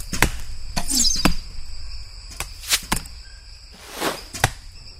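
Arrows shot by Indians defending their village in the Amazon region whoosh past and thud into targets several times, sharp impacts with airy whistling sweeps in between, no voices.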